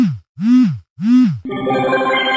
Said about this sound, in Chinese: 昨天半夜肚子饿了就泡了碗面，然后呢就把手机放泡面盒盒上压到起，结果电话一响，外加震动，手机掉进去了，掉进去了，是哪咋的？